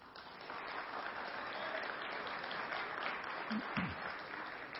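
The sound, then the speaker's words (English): A large crowd claps loudly and steadily for about five seconds to show that the game is their favorite part of the Super Bowl, a dense, continuous wash of applause with no voices standing out. “So, clap loudly if you like the game.”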